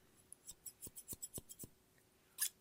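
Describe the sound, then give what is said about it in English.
A quick run of seven or eight crisp scissor snips in steady rhythm, fairly quiet, followed by a brief pause and one brighter metallic snip at the end. No talking. “I have a couple of different scissors with me today.”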